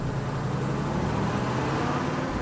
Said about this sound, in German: Damit stapft der Mann zurück zu seinem Auto und fährt davon.